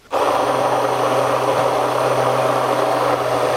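A blender switches on abruptly and whirs loudly and steadily while pureeing sauce, a constant high-pitched motor drone with a low hum underneath, running for a few seconds without any talking.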